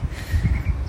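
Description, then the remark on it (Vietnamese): Wind rumbles and gusts steadily outdoors through the canopy of many tall trees in front of a house, with faint bird chirping barely rising above the breeze. “lắng nghe tiếng chim hót xung quanh tiếng gió thổi vào tán cây à, trước cửa nhà mình là cái cây nhiều nhiều cây rất là cao của trước cửa nhà mình là sân vận động nữa cho nên gió mát lắm”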